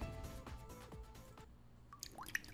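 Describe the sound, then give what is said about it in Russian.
Water drips and gurgles, with wet plinks and a few sharp droplet taps scattered unevenly over a couple of seconds, no voices present. “Вода. Жидкость без цвета, запаха и вкуса.”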